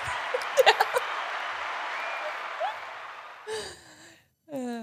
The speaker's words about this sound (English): he has to clap for himself, but he's got to remember to turn the volume up.